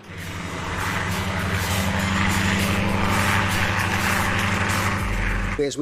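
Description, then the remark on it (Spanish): The engine and rotor of a Russian Mi-17 helicopter climbing over Afghanistan drone loudly and steadily, a low throbbing hum layered with whining harmonics and rushing air, with the tone shifting briefly at the end as the engine strains in thinning air. “A medida que ascendíamos, oíamos cómo cambiaba el sonido del motor.”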